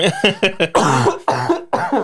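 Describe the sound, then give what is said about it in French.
A close, loud coughing fit: four quick, sharp coughs in a row, then three longer, heavier hacking coughs, with no talking. “Attention, je vais tousser deuxième.”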